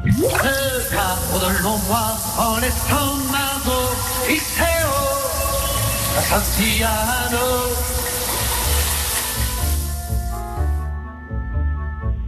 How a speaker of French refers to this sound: Bon, en ce qui concerne la salle de bain, je vous l'ai dit. Là, pour le coup, nous, on a une baignoire et on a même une douche et on a un chanteur qui chante dessous.